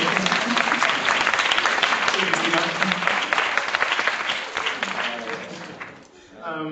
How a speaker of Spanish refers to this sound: Podéis aplaudir si queréis porque yo creo que ya se lo merece.